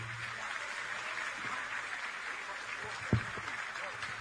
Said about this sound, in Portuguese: Ele é meu amigo, meu querido amigo, a quem eu rendo todas as homenagens e peço o aplauso de vocês,